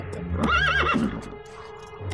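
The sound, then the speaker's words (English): A horse lets out one short, quavering whinny, its pitch wobbling up and down for about half a second, fairly loud over a low rumbling background. “Hold it. Hold it. Hold it, horse.”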